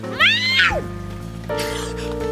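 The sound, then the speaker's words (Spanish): A voice lets out a rising, wavering yowl imitating an angry cat, sliding up and falling away, followed by a sustained noisy hiss-like tone with a steady hum underneath. “Nuestros aullidos han desatado una nueva lluvia mágica.”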